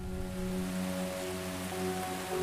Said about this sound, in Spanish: Caía cada vez más lluvia en lugar de nieve.